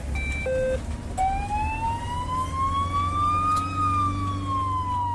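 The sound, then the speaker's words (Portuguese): An ambulance siren on an emergency run through the streets of Porto, Portugal, heading to Santo Ildefonso parish, wails loudly in a long, slow rising and falling sweep, preceded by a couple of short beeping tones, over a steady low engine rumble. “Em Contrarrelógio, pelas ruas do Porto, vai ao volante Isabel Badim.”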